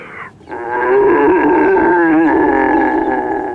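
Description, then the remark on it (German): A person practising for the Austrian deer-calling championship imitates a red deer stag's rutting roar: one long, loud, guttural bellow with a wavering, groaning pitch. It rises after a brief quiet start and holds steady for several seconds. “Ich mache am Wochenende bei der österreichischen Hirschrufmeisterschaft mit.”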